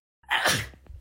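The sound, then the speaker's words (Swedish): A single sharp sneeze bursts out, a quick intake followed by a loud breathy explosion that fades within a second. “Prosit.”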